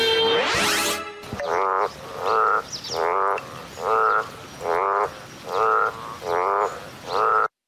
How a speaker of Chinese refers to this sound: 嗯，我们答案是青蛙呱呱的叫声。